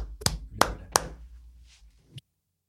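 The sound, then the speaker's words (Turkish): Three sharp hand claps in an even rhythm, fairly loud, followed by a pause and one last lighter clap, given as applause to bid someone farewell; no one speaks. “Alkışlarla uğurluyoruz.”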